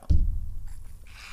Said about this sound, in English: oh, some sip of mate because life a uh, day without mate is uh, is just a bad day.